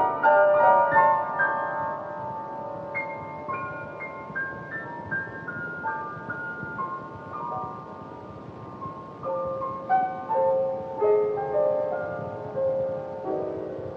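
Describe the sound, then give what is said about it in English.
A solo piano plays a slow, wandering, improvised melody over sustained chords, its notes ringing and overlapping in a free, unhurried rhythm, with no voices. A woman plays a song she improvised for John, recorded on an old audio tape. “It's her at the piano, playing a song she improvised for John, pouring out her emotions about his life and death.”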